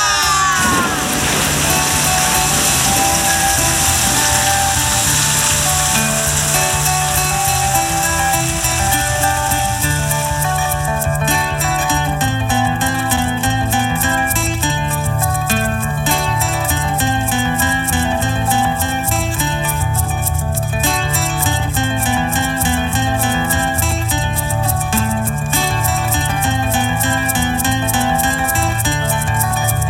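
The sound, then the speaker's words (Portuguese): Dry rain imitated by tapping one finger against another, then more fingers, a dense, steady patter that thickens partway through and continues over soft background music, moderately loud. “Eles pediam: Vó, faz a chuva seca. Vamos lá, batendo um dedo no outro. Agora dois, três e. Chuva!”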